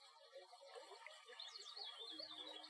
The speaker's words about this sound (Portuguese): Agora imagine agradável e lindo riacho. Um riacho suave em meio à floresta.